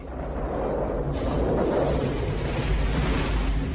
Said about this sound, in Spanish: Todas esas nubes mantecosas han provocado una tormenta eléctrica.